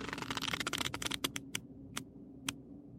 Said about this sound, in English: Watch me move the cards around. These are plastic coated.